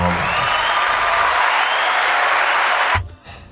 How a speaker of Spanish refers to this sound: Tengo que poner unos aplausos, por favor, unos aplausos,